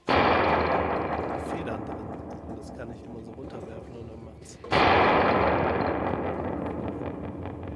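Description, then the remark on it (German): A spring reverb struck to mimic thunder: two loud, booming crashes, one at the start and one just past halfway, each trailing off into a long, metallic, rumbling decay. “Ich habe so ein cooles äh, Spring Reverb mit so richtigen”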